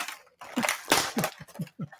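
Ripping and crinkling of the packaging of a package that came in the mail, several rough tearing bursts over a couple of seconds, with a strong rip in the middle and softer crackles around it.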